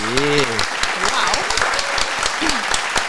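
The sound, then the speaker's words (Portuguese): An audience claps steadily throughout, a dense patter of hand claps, while a voice calls out briefly at the start and other voices murmur underneath. “Palmas. Olha aí.”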